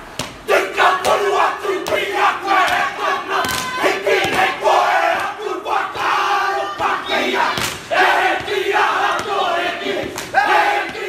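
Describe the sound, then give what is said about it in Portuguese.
A group of Maori, the native people of New Zealand, performs a haka war chant, loud rhythmic shouting in unison with sharp accented cries and thudding stamps recurring throughout, voices strained and forceful. “eles fazem raca, eles fazem careta, colocam a língua para fora”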